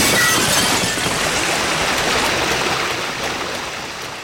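Cracked glass, bulging under the pressure of 200 to 500 litres of water, bursts. The breaking glass gives way to a loud, steady rush of gushing water that roars continuously and full, easing off only slightly toward the end. No voices.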